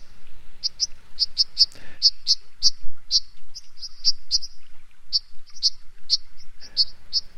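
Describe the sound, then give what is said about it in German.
A white-throated dipper's sharp, high calls as it flies straight and whirring just above the water surface, a rapid irregular series of short piercing notes repeated throughout, clear over a faint background with no voices. “Fliegt ganz gerade, straight, wenn man ihn mal sieht, wie ein Eisvogel, schwirrend knapp über der Wasseroberfläche und meist hört man sie dann auch.”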